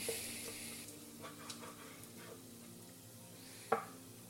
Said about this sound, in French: Donc là, je vais découper ma saucisse en tronçons.